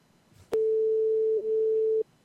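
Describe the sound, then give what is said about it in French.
A telephone ringing tone on an outgoing call: one steady, unbroken electronic beep lasting about a second and a half, starting with a faint click and sounding clear, with no talking. “16h50 sur la radio des sonneries des téléphones.”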